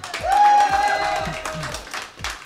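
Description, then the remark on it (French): Short burst of applause for a correct answer in a quiz: a dense, steady patter of claps with a high whistle-like tone ringing over the first half, fading a little toward the end. “Alors, vous dites Nevada Ouais, Applaudissements, bonne réponse.”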